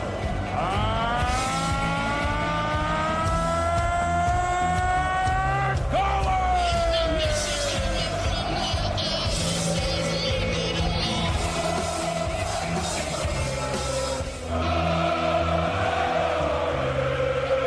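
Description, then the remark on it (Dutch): A huge arena crowd at a darts player's walk-on during the 2016 Premier League at Ahoy roars and cheers nonstop, loud and dense, with rising horn-like tones sweeping over the din early on before the roar carries on unbroken. “Ehm, en dat is een opkomst, 2016, Premier League in Ahoy. Het publiek was blij om je weer te zien.”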